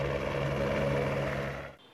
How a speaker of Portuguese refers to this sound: Os policiais encontraram o suspeito neste barraco em Samambaia, na periferia de Brasília. Um helicóptero auxiliou nas buscas.